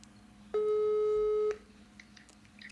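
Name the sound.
phone call tone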